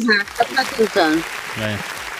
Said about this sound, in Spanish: No aplaudan. Empezaron a aplaudir. Compadre, no ponga aplausos cuando se trate de...